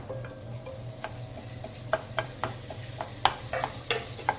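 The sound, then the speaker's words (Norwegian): Minced meat for a bolognese frying on full heat in the middle of a pan with the vegetables pushed to the side, a steady sizzle with scattered sharp crackles and pops over a low background hum, no voices. “så er det bare full fres på kjøttdeigen i midten mens du har grønnsakene på siden.”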